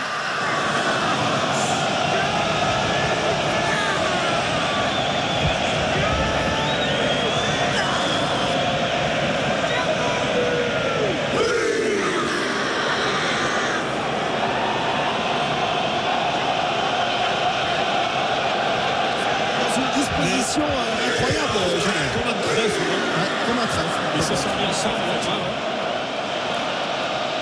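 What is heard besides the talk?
stadium crowd whistling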